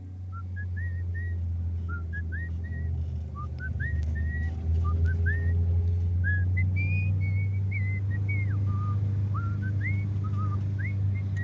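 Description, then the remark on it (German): Someone whistles a meandering tune in short, bright rising phrases, continuing steadily throughout, over a constant loud low rumble like an engine or motor droning underneath. “Lassen Sie die Pfeiferei”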